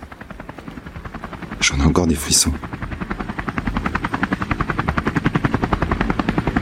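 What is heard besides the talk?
helicopter rotor blades spinning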